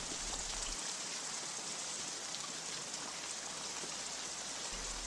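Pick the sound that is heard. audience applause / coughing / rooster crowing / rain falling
rain falling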